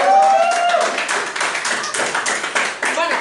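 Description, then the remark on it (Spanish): A burst of audience applause in a theatre, dense crackling claps from many hands that stay fairly loud and steady throughout, with a brief tonal voice-like whistle at the start. “Uy, que un aplauso para esa gente que se...”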